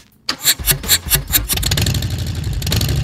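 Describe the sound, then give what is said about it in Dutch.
A Harley-Davidson motorcycle engine, parked in front of the door, cranks over a few times, then fires up and settles into a loud, lumpy, rhythmic idle, with no voices. “Het is, dat is mijn exemplaar die nu voor de deur staat.”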